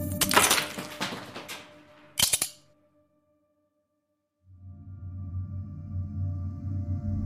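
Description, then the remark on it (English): Loud crunching as a nutcracker crushes the last ice cube on a balcony: a burst of splintering crackle, then a hard double snap, followed by silence and a low, steady drone. “picks up the nutcracker, and cracks the last ice cube.”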